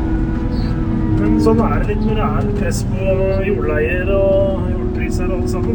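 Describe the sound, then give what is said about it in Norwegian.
A steady, loud engine drone of a tractor and forage harvester cutting grass up near Solum, beyond Gjerpensdalen, runs throughout, with a low rumble and sustained mechanical hum, while a person talks over it. “Dere får ha oss unnskyldt hvis det blir litt uh, mye lyd, men uh, det er lyden av uh, eh, Gratslott dere hører.”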